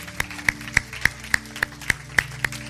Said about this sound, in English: Come on, ladies, what about it? Don't you want to give them a good round of applause?